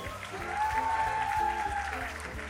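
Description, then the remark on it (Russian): A studio audience applauds a music group's performers steadily for a few seconds, a dense, loud wash of clapping with a sustained whistle-like tone riding over it. “И вновь ваши восторги”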